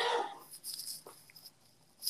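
A man's single sharp sneeze from downstairs, loud and bark-like, bursts out at the start and fades quickly, leaving faint background hiss with no talking.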